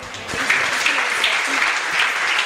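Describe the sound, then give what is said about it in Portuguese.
At a church service, an audience claps steadily and continuously for the Lord Jesus, a dense, even wash of applause that stays at a constant loud level with no voices standing out. “Quantos podem aplaudir o Senhor Jesus, amém?”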